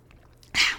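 A single sip of water: after a near-silent moment comes one brief, wet, hissy slurp that rises sharply and fades within a quarter second. No talking.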